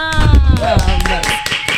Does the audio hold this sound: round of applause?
yes